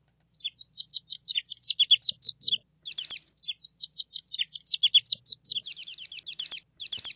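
An American pipit sings a long run of quick, high, repeated chips, punctuated by brighter buzzy trills near 3 and 6–7 seconds, clear with no voices.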